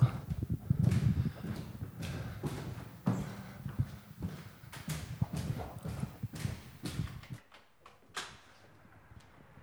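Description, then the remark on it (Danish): Footsteps walking down the stairwell of an apartment building, a steady run of sharp, hard taps with a slight echo that thin out and grow quieter near the end. “Så er jeg ude min opgang.”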